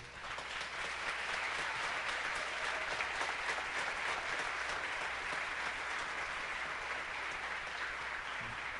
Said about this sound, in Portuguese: Eu queria pedir que toda a juventude ficasse de pé aqui presente, como um gesto de representando a honra que nós devemos ao nosso pastor por tudo que ele tem sido a referência para as nossas vidas e uma salva de palmas para o nosso pastor.